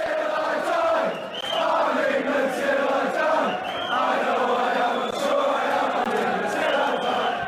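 A crowd cheers and claps in a steady, loud roar lasting several seconds, with whoops and shouts rising over scattered hand claps and no clear speech.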